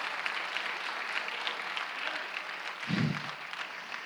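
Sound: audience applauding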